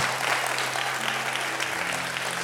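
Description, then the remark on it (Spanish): An audience applauds the Lord at a pastor's sermon, a dense wash of clapping hands that holds at an even level throughout, with a low sustained tone humming faintly underneath. “Si usted lo cree, denle un aplauso al Señor como que, Lord, I'm next.”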